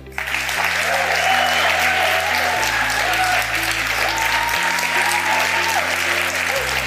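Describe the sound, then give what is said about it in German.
Sustained audience applause after a talk, a steady loud wash of many hands clapping for several seconds, with some faint voices mixed into the crowd noise. “ein Applaus.”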